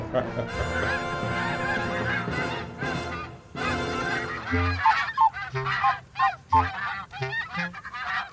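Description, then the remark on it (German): A flock of geese honks and cackles, a dense overlapping chorus at first that breaks into sharper, separate honks in quick, irregular bursts. “Dieses Mal das große Schnattern.”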